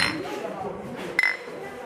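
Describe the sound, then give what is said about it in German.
A single bright clink of beer glasses knocked together in a toast, ringing briefly with a clear tone over a low murmur of voices. “Ähm, aber äh, Prost. Prost. Prost.”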